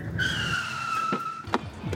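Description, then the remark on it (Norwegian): A car brakes to a stop with a sustained, high tire squeal lasting about a second, followed by a few short knocks as it settles. Clear, no voices. “Først kjørte de til den lille parken midt i Nøttvik.”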